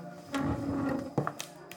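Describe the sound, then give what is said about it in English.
The door of a private room swings shut with a single muffled thud, followed by a couple of light latch clicks, over a low, steady hum. “Pillow stands, heads to the entrance of the private room, and closes the door.”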